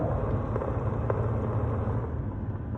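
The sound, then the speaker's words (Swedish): Minced meat crackling in a pan as its water boils off and it nears browning: a steady, loud frying hiss with a low rumble beneath and a few scattered sharp pops. No one speaks. “Man märker att man är nära när det börjar knastra så här.”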